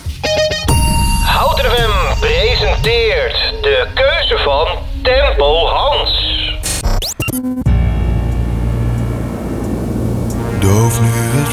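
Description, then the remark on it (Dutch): A thin, tinny radio-style segment plays for several seconds, then cuts abruptly into a fuller Dutch pop song played on the radio that carries on steadily and loudly to the end. “Komt … aan met … op Hout FM”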